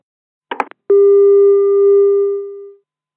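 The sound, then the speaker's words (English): A short clatter of a phone handset being put down is followed by a steady, continuous telephone busy tone that hums for about two seconds before cutting off. No one speaks. “So you just put the phone down.”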